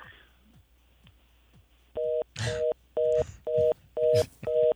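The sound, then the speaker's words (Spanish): A telephone busy signal beeps in a steady on-off rhythm, about five short dual-tone pulses, fairly loud, with faint background voices and clatter mixed between the beeps. “Hasta el sonido del teléfono cayó bien ahí.”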